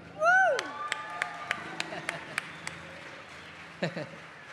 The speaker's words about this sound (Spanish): Un aplauso para mi primo